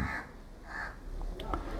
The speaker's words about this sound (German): Meine Heiligkeit umhüllt diesen Vogel oder diesen Raben, der hier unaufhörlich seine Geräusche abgibt.